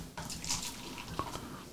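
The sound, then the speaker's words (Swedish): Beer, a Mariestad, pouring steadily into a glass, a bright continuous splashing rush with a few gurgles toward the end. “fram en liten fuskare här så jag tänkte vi skulle symbolisera att det, att det är fredag och ta en liten en öl.”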